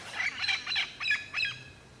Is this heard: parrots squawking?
yes